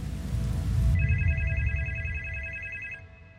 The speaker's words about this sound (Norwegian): Plutselig ble han dratt ut av det vakre landskapet av at telefonen ringte. Det var Industridepartementet som ønsket at han skulle komme til Oslo for et møte.